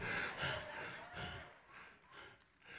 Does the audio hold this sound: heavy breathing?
yes